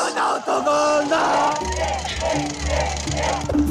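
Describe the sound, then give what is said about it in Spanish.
A stadium crowd roars and cheers after a goal at a football match, in a dense, steady wash of noise, with sustained horn-like tones and chanting voices rising through it for the whole stretch. “¡Estalla la tribuna!”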